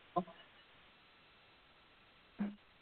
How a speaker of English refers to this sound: It buzzed for a second.